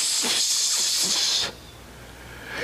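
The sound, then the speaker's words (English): A toddler just over a year old imitates a snake with a sustained, fairly loud hiss lasting about a second and a half, then breaks off, leaving faint background noise. “what does a snake sound like? And she'll go, Tss.”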